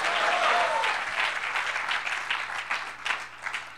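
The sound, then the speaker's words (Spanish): Loud, dense applause from an audience at a church service, clapping for the Lord. A steady wash of many hands clapping starts strong and gradually thins, with a brief tonal voice-like sound early on. “A ver, aplauda fuerte, aplauda fuerte.”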